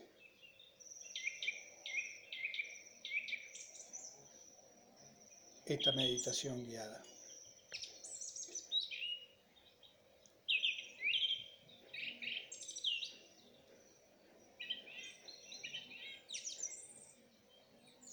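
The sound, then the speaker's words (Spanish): Steady birdsong of doves fills the background of a guided meditation, a busy mix of high chirps and short warbling phrases repeating throughout, with a brief burst of speech partway through and a faint low hum beneath. “Meditación con canto de pajaros de fondo”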